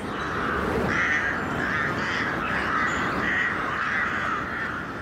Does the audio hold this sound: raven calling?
yes